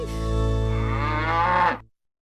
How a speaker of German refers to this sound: Die Kuh muss ich unbedingt mal kennenlernen. Die hat so einen guten Humor.